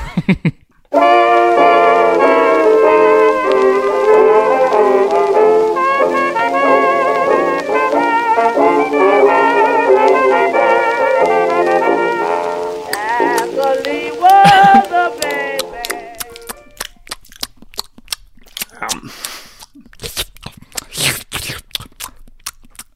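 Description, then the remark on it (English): A stretch of sustained, harmonic music fades out, then one mouth's wet chewing takes over at the microphone: irregular crunchy smacks and clicks, fairly loud, with no talking. “I'm asking you, what is the sound of one mouth chewing?”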